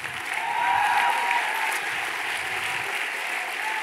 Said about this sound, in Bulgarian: Това е ръкопляскане на завист.